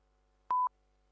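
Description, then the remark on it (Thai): A single short censor bleep covering a swear word, a steady high electronic tone lasting a fraction of a second, stands out against near silence with no voices. “ไม่ต้องตกใจนะครับ ว่าทำไมผมถึงกดกดปี๊บปี๊บปี๊บรัวขนาดนั้น ใช่ครับ ผมสะบัดคำหยาบครับ แต่ผมไม่สามารถสะบัดตรง ๆ ออกอากาศได้ ผมก็เลยใช้ voice bot”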